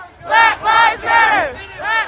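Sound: protest crowd shouting slogans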